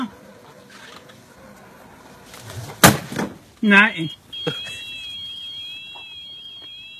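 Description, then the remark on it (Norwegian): A robotic lawnmower's alarm sounds during a confrontation with a moose, a steady high electronic tone with a slight warble that holds for several seconds, following a sharp clunk and a brief spoken word. “Og alarmen som går, det er, det er gressklipperen som, som sier ifra.”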